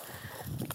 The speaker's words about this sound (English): That is a dog shaking.